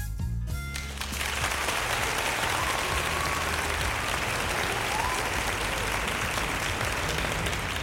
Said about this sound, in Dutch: Applaus, my man.